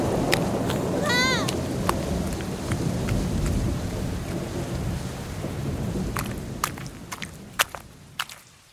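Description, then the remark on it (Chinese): Steady rain pours down with a low, continuous rumble of thunder underneath, while sharp tapping drops and a few brief chirping sounds break through near the start and end. “说不定下雨被困在哪了。”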